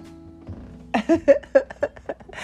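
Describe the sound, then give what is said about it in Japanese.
A very large leather chair creaks and squeaks as someone sits in it, giving a quick run of six or seven rhythmic groans over a faint low hum. “すっごく大きい革張りの椅子なんだけれどなんかこれ座り心地はいいけど音が出るんだけどみたいな”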